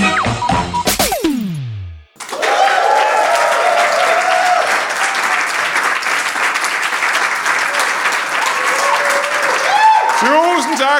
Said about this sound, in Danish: Hvis man sidder hjemme i stuen og tænker, at det er et enormt bifald, så kan jeg kun sige, det vil jeg give dig ret i. Det er, som det lyder, når 1100 mennesker klapper på én gang. Det er simpelthen det sødeste publikum.